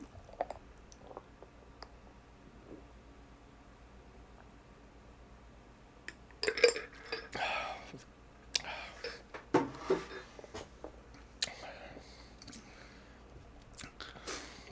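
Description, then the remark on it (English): After several quiet seconds, a shot glass is dropped into beer with a sharp clink and splash, followed by wet gulping and swallowing sounds in uneven bursts as the drink is chugged. “No, you're not pouring it in, …. You're dropping it in”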